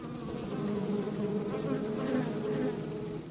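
A dense swarm of bees buzzes steadily and continuously, a fairly loud droning hum with shifting overlapping tones and no voices.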